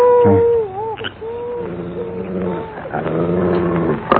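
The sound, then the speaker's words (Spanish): A dog growls for about four seconds, a continuous rumbling vocalization whose pitch rises and dips, taking on a whiny edge. It's fairly loud and sounds alone, with no talking over it. “¿Qué le gruñes tú”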